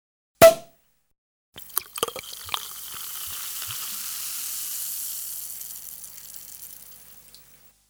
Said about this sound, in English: We took a break to give Ashley some more mimosa because she barely had any